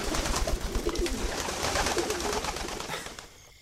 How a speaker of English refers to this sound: Pigeons. That was quite a flock. They all just took off from the balustrades at once.